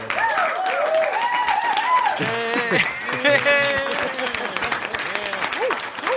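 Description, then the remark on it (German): A crowd applauds steadily, with dense clapping running the whole time while loud voices call and cheer over it. “Die klatschen für uns, ach so.”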